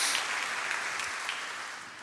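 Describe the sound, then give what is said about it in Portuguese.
A church audience applauds the Lord in a dense, steady wash of many hands clapping, holding fairly even in loudness before easing slightly toward the end, with no voices audible. “Dá uma salva de palmas mãos ao Senhor.”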